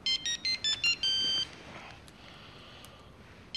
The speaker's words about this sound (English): Cut to the ringtone we all know and love.